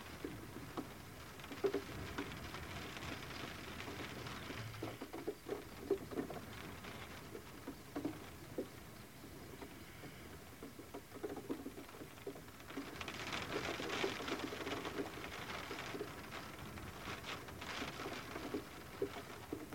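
Steady rain patters and splashes on surfaces during a thunderstorm in a botanical garden, swelling louder toward the second half, while pigeons coo softly in the background. No one speaks.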